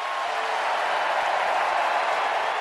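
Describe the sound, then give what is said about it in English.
A large baseball crowd at an away game cheers and applauds Albert Pujols of the Angels, a former Cardinal, after his home run. It is a steady, dense roar, loud and unbroken for the whole stretch, with no single voice standing out. “the crowd is still cheering”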